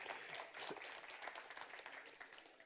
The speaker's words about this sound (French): Je sais qu'il y a plus de sœurs qui applaudissent. Je sais. Et le pasteur, merci. Ah, et puis il y a le frère aussi, j'ai j'ai vu.